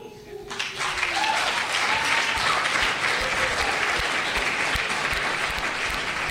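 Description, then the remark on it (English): After a poem is read, an audience breaks into a dense, steady patter of finger snaps mixed with clapping, sustained for several seconds, with a few faint voices calling out underneath at the start. “And apparently a little bit of snapping.”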